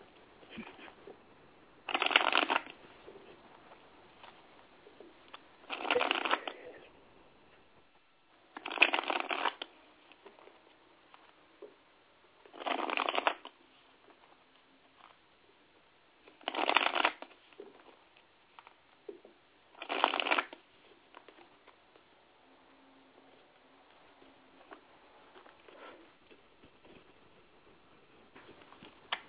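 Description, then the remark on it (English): A deck of tarot cards is shuffled for a general reading, six crisp riffling bursts spaced a few seconds apart with quiet pauses and faint handling sounds between them, and no talking. “Just one moment while I shuffle.”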